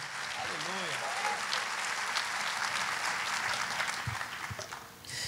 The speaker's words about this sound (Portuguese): Você pode aplaudir o Senhor, querido. Dá um glória a Deus aí.